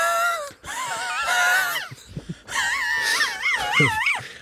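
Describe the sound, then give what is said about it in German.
A voice doing a vocal warm-up exercise wails and moans through sliding, wavering pitches in two long bursts separated by a short pause, with a few breathy gasps between. “Ich mache einfach immer regelmäßig sehr professionelle Stimmübungen.”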